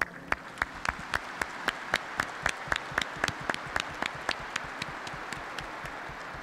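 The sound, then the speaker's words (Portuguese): An audience at a church service in a sanctuary applauds to welcome one another, with steady, fairly quick rhythmic clapping lasting several seconds in a reverberant space, moderately loud and without voices. “Na alegria de celebrar, vamos todos nos acolher mutuamente com uma calorosa salva de palmas.”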